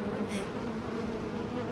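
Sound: bee buzzing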